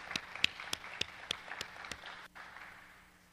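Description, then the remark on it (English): A church audience applauds, a dense wash of clapping with a few sharp, evenly spaced claps standing out near the front, fading away after about two and a half seconds. “I'll applaud you.”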